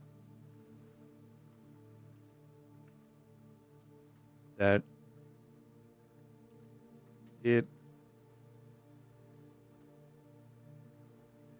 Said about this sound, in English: the rain starts to fall, uh, both on the sails, and you can hear it patter as well.